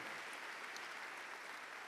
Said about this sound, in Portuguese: Quem pode dar um grande aplauso ao Senhor que merece nada menos do que o nosso melhor?